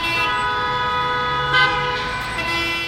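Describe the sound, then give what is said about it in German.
Busy street traffic at about 80 decibels, with a sustained car horn blaring loudly across the whole stretch, its steady harmonic tone riding over a dense rumble of engines, with a brief louder burst midway. “Ja, Strassenlärm etwa 80 Dezibel.”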